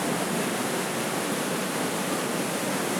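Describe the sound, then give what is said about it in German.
Water pours steadily onto an overshot water wheel in the Johannesbrunnhaus, which drives pumps; a dense, even rushing roar that stays loud and unbroken throughout, with no voices. “im Johannesbrunnhaus hat man ein oberschlächtiges Wasserrad. Also das Wasserrad, je mehr Wasser dann da äh, drauf fällt, desto schneller dreht sich das Rad und desto schneller werden die Pumpen betrieben und desto höher wird der Druck.”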